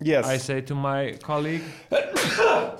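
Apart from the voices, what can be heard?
sneezing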